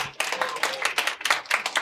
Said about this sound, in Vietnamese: Ờ, chúng ta vỗ tay cho Isaac ạ.